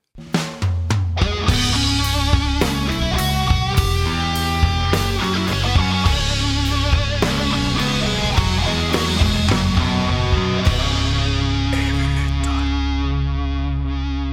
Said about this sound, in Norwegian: som har lagd disse jinglesene. Jeg eh, har lyst til å vise dere alle sammen. Eh, dere har hørt to nå, så nå får dere høre en til.